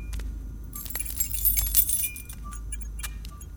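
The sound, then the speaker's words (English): Keys jangle in a bright metallic burst, clinking and rattling for a couple of seconds as they are grabbed, then settling into a few faint chinks over a low hum. “Grab the key.”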